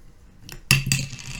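A cap drops and hits a hard surface with a sharp, bright clatter and a brief rattling ring as it settles, preceded by a faint tick. No one speaks.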